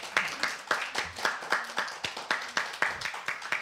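An audience applauds steadily, the claps landing in a brisk, fairly even rhythm over a bright, dense patter of hands. The applause stays at a moderate level throughout, with no voices.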